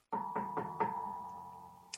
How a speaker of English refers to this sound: All right. I'm standing over by the uh, statue, and I'll knock on the door with the mage hand.